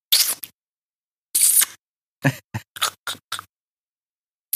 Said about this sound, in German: Dazu kurz ein paar Schmatzgeräusche.